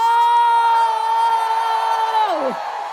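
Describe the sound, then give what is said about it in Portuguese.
A loud, drawn-out shout of "Gol!" celebrating a Brazil goal, held on one steady pitch for over two seconds, then sliding sharply downward at the end, with a diffuse crowd-like roar underneath. “A gente, é mas é fervoroso para gritar: Gol!”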